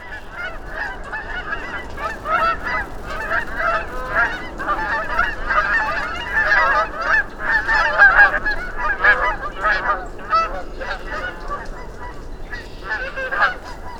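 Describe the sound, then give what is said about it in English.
A flock of geese flying overhead in a V formation honks continuously, many overlapping nasal calls at a steady, busy pace, fairly loud and constant for the whole stretch with no voices. “The next time you hear the telltale honking of a formation of geese flying overhead, here, let me help.”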